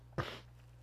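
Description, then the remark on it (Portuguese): A single short, explosive sneeze bursts out and fades quickly, leaving only a faint steady hum behind it. “Não, peraí, eu vou espirrar.”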